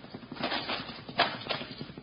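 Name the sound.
horses galloping away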